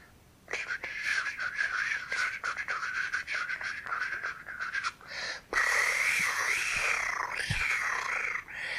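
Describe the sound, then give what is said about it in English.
A voice imitates fluttering fairy wings with a breathy, whistling trill, held in two long stretches with a short break between them. The sound is fairly loud and continuous, with no talking. “What she had heard, the sound that she did not know, was the sound of fairy wings.”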